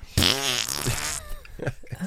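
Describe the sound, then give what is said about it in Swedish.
A loud, drawn-out fart with a buzzy, wobbling pitch lasts about a second, followed by a few softer voiced sounds. “Och så börjar du fisa”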